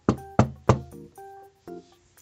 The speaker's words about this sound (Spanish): Después fue nuevamente a la casa de señorita Cerda y golpeó a la puerta.